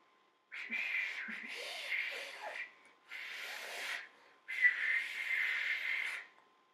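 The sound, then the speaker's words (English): A person whistles an imitation of a sparrow, drawn from a card in an animal-imitation game: three breathy, airy bursts of chirping, high-pitched tones, each lasting about a second or more, with short pauses between them and no talking. “Okay, the first card says sparrow, so uh, I don't really know the difference between a sparrow and a normal bird, so.”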